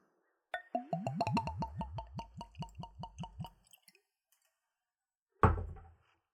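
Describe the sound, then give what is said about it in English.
Bourbon glugs from a bottle into a clean Glencairn whiskey glass, poured neat at room temperature, in a quick, steady series of about a dozen hollow gurgles, followed by a short pause and a solid thunk as the bottle is set down. “Now we'll go for a pour.”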